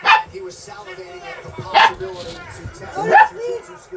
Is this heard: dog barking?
yes